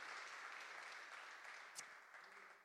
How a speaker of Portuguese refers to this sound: Se você está comigo aqui, dê um aplauso ao Senhor, vocês estão aqui comigo.